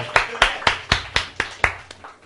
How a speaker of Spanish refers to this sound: Un aplauso.